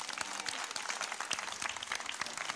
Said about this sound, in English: And all his people said, Amen. Amen. So let's applaud the Lord.